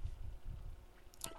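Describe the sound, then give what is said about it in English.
A quiet low rumble runs under everything, then near the end comes one short, bright chirp: a phone's low-battery alert as the phone is dying. No one speaks. “And, oh, that's my phone dying.”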